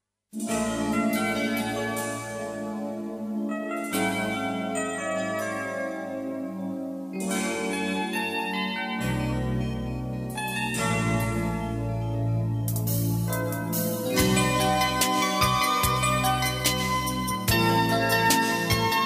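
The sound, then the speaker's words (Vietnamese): An instrumental melody plays continuously at a steady, fairly loud level, with bright chime-like notes over a sustained low bass line. No voices are heard. “Còn bây giờ xin mời quý vị thính giả chúng ta cùng thư giãn với một giai điệu âm nhạc.”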